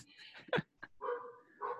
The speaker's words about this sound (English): Oh my god, that, that dog. that dog in the background.